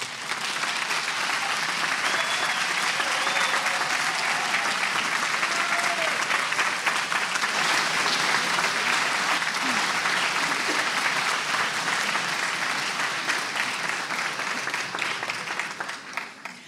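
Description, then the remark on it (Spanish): Sustained audience applause in a packed auditorium as the Estudio Coral de Buenos Aires choir and its director Carlos López Pucho take the stage for a recital, a dense, steady wash of many hands clapping at an even loudness for about sixteen seconds before tapering slightly at the end. “Aplaudimos, ya los tenemos en el escenario, al Estudio Coral de Buenos Aires y recibimos a su director, Carlos López Pucho.”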